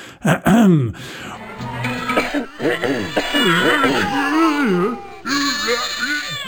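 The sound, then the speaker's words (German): A voice imitates a video game's throat-clearing sound effect: a couple of short, rough coughing bursts, followed by several seconds of drawn-out, wavering guttural vocal noises. “Äh, was, was das nämlich wirklich ist, ist, du hast einen, einen Soundeffekt, jemand räuspert sich so.”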